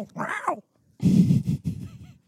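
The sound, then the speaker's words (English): A person vocally imitates an angry cat: a short strained yowl, a brief pause, then a longer raspy hissing growl broken into several choppy bursts. “That's the bitch cat sound every by the way, but we don't have a button for it.”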